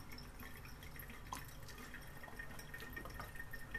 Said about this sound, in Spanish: Perdón que tomo un poco de agua.